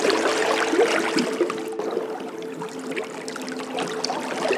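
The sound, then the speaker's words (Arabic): A wooden boat, its timbers made from tree trunks, moves steadily through water, with continuous sloshing and trickling against the hull and a faint low hum underneath, moderately loud with no one talking. “فكر في تذكار آخر يتنقل عبر أماكن وبلدان بعيدة لا شك بأنه ذلك القارب الخشبي الذي صنعت أخشابه من جذوع الأشجار بكل رضا وحب”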